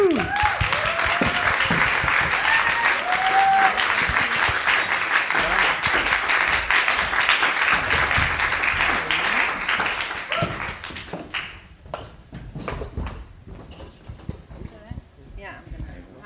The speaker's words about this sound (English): So give a big applause to the Books and Rhymes podcast.